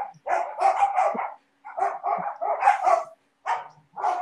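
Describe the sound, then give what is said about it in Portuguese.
A dog barks repeatedly and loudly, in quick clusters of sharp barks separated by short pauses, with no one talking over it. “Ó, oh, o cachorro eu comprei na residência.”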